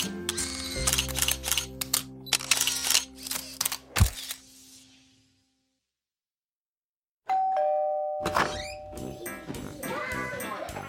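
A rapid series of crisp camera shutter clicks fires off as a mother and father take photos, over a low sustained tone, then silence, followed by a bright chime-like tone and a busy jumble of sounds.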